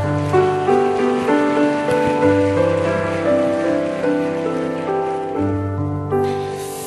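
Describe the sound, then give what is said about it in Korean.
Steady, dense applause from a church audience welcoming the pastor who will preach runs for about seven seconds, a continuous crackling wash layered over sustained, held musical chords, with no one speaking. “뜨거운 박수로 한번 환영해 주시기 바랍니다.”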